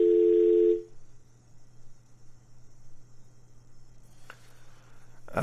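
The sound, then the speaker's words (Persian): A loud, steady telephone dial tone sounds for under a second after a phone call with a guest drops during a radio program, then cuts off abruptly, leaving a low electrical hum, faint line hiss and a couple of clicks. “متاسفانه که تماس خود با آقای وجدانی از دست دادیم”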